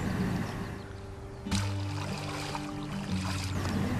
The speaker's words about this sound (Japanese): 石に隠れている生き物を調べてみましょうブラシでこすり水をかけて石にくっついている生き物を剥がします